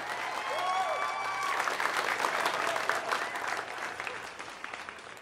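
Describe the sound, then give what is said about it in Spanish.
Stadium-style applause sound effect added in post-production: sustained applause from a large crowd, dense and steady, with a few whistles or cheers rising early on before the clapping gradually thins out. “Como él postproduce, aquí debe haber aplausos como de estadio.”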